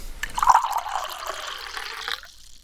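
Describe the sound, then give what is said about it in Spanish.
Drinking water pours steadily into a glass for a couple of seconds, the pitch rising as it fills, then stops. It is fairly quiet, with no talking. “¿tomamos un poquito de agua?”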